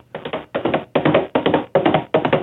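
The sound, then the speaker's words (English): Steady tapping of a stick in a galloping rhythm, imitating horse hooves, with six clusters of crisp knocks repeating about every two-fifths of a second. “You grabbed another stick to make me sound like a fool.”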